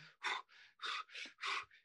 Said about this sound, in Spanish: Está respirando hiperventilando y eso hace que sienta la dificultad respiratoria.